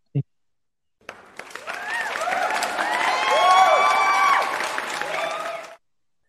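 A burst of clapping and cheering swells for about five seconds, with excited shouts and whoops riding over steady applause before it cuts off abruptly, preceded by a brief thump.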